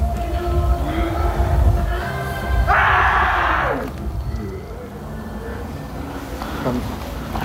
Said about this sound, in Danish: Altså, når folk begynder at råbe og skrige på gaden, så er jeg sådan, det skal vi bare ikke blande os i. Men skal vi lige se, hvad der sker der?